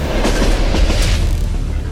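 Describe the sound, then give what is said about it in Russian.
The armored personal train of North Korean leader Kim Jong Un rolls along, its wheels clattering over the rail joints in a steady rhythmic clack above a continuous low rumble, with no voices. “Лидер КНДР не в первый раз путешествует на бронированном поезде.”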